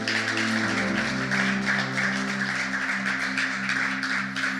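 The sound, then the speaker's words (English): A church audience claps steadily and continuously for the worship team at a morning service, a dense wash of many hands, with a low sustained keyboard chord humming underneath throughout. “Can we guys give a round of applause for the worship team?”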